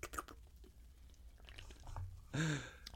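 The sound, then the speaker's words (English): Wet mouth sounds build to a short, loud slurp of a sip of extra pale ale near the end, followed by a faint smack of the lips. “slurp. I would probably put this in the high sevens.”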